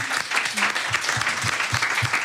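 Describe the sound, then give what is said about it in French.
A burst of audience applause, many hands clapping in a dense, steady patter at fairly loud level, with a few voices faintly mixed in underneath. “On peut l'applaudir quand même.”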